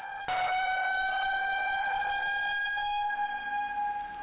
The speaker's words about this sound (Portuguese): No subúrbio, o alerta veio por meio de sirenes.